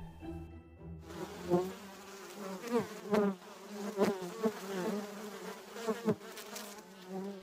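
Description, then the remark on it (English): A dense, steady drone of many honeybees buzzing together as a swarm between nest sites, hanging tight while scout bees search for a new home, continuous, with individual bees rising and falling in pitch as they fly past. “They hang tight until the scout bees find a more suitable abode.”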